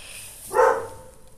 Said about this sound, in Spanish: Ay, I'm sorry, son los perritos de al lado.